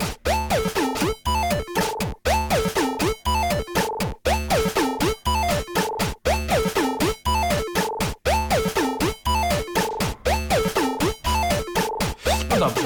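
A looping electronic sequence from a pocket synthesizer repeats in a steady, loud rhythm with punchy bass hits and buzzy tones whose pitch and timbre shift as the right knob is turned while the right button is held, sweeping the sound over time.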